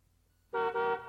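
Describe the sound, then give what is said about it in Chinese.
A BMW car horn honks twice outside in quick succession after a moment of quiet, a loud, bright, buzzy tone with the second blast running straight on from the first. “外面传来宝马车的喇叭声，绵绵不绝，一声紧催一声。”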